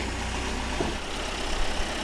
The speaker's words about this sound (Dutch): Ah, en dan schuift de telescooparm uit. Ja. En zo komen we dichter bij de boom. Ja, klopt. Ja. En zo hebben we toch een. Eh, volgens mij heeft, eh, heeft hij een bereik van iets van 27 eh, meter of zo.